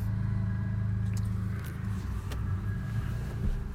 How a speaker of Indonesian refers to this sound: aduh gua ngerekam di mobil nih demi lu nih semua nih anjing lah panas lagi